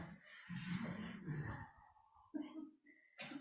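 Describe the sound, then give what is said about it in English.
Breathy exhales and inhales rush straight into a microphone in a few noisy bursts, fairly loud and airy, with brief pauses between them and no clear words. “Yes, it's not a keep hearing my breath.”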